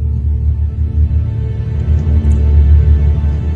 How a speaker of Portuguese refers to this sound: Eu nem o vi saindo pela porta, só escutei o barulho, o ronco do carro sendo ligado lá fora.